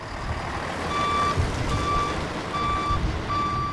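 A heavy truck, a volunteer's professional lorry used for firefighting logistics and for helping evacuated residents, reverses with its backup alarm sounding four steady, evenly spaced beeps over a continuous low engine rumble, fairly loud, with no voices.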